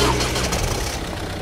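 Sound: car engine running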